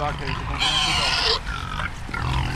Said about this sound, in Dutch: En wat staat daar eh, om de hoek te kijken? Dat zijn de varkens die nu eh, ons gaan horen en denken: hé, hey, komt er eten aan.